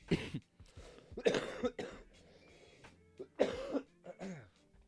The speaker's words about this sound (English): oh my, I got a cough